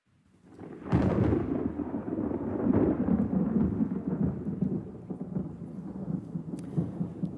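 A deep crack of thunder breaks about a second in, then rolls on as a long, loud rumble over steady rain, slowly fading but never quite dying away. No one speaks.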